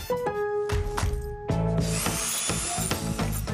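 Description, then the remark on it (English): A cordless power drill whirs with a steady high motor whine, then bites in with a louder, rougher grinding burst. Fairly loud, with no voices. “with items like Craftsman 20 volt drills starting at $59”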